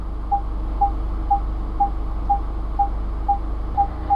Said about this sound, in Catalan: els conductors de cotxes relativament moderns, estem acostumats a sentir això, aquests sorolls que estem sempre sentint quan aparquem, quan ens acostem ara, ara, massa una columna no, del pàrquing, sí.